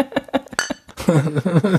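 Glasses clink together in a toast: four or five quick, bright chimes in the first second, then a voice takes over and the clinking stops.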